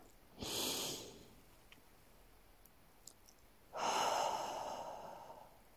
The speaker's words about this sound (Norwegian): Trekk pusten godt inn. Gjør det en gang til, og pust saktere ut enn du puster inn.